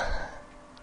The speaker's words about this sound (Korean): 그리고 숨을 쉴 때마다 그거 알죠? 숨을 내쉬고 들이마시면 목이 간질간질 거리면서 기침이 나오기 시작하는 거예요.